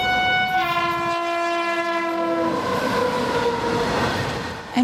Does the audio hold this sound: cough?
no